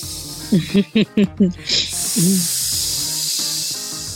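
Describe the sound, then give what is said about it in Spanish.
A voice imitates a hissing, deflating sound: several short voiced bursts, then a long, steady breathy hiss that trails off, fairly loud. “Ahí hasta parece que me estoy desinflando.”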